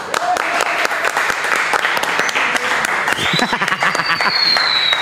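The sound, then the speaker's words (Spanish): A crowd applauds steadily, dense clapping filling the whole stretch at a fairly loud level, with some voices and a brief whistle-like tone rising near the end. “Aplausos.”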